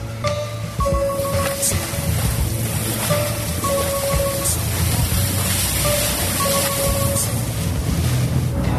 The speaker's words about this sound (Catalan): ara sóc dalt d'un vaixell, en aquesta zona del Cap de Creus, al Port de la Selva, que hem de sortir del Port de la Selva amb el centre d'immersió d'aquesta població de l'Alt Empordà.